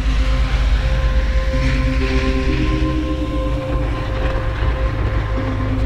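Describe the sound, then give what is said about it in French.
A snowmobile engine drones steadily and loudly as it is driven toward a sailboat, a deep rumble with a sustained whining hum layered on top, running without pause and no voices. “On a pris le scooter des neiges, direction le voilier de Linda.”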